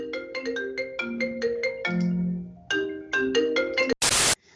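A mobile phone ringtone for an incoming call from an unknown caller plays a bright, melodic sequence of synthesized tones in a quick rhythmic pattern, clear, ending in a short burst of harsh noise.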